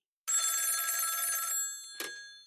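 A single bright electronic ringing burst from a mobile phone placing a call lasts about a second and a quarter, then fades, followed by a short click-like sound; no voices are present.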